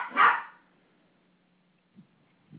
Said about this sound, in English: Ah, oh, we have a pup barking at his competitor, the cat.